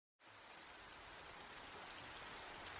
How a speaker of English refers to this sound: A small, uncomfortable car parked at night in a deserted square in the rain, with frogs croaking.